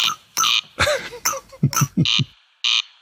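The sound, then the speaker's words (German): The rasping call of a rare bird heard at night, mainly from mid to late May, is imitated by scraping a comb: several short, dry, buzzing rasps in an uneven rhythm, loud, mixed with lower croaky sounds and no talking. “Die haben mir nämlich einen Kamm zur Verfügung gestellt. Weil ich habe ein paar Kämme ausprobiert, nicht jeder klingt so”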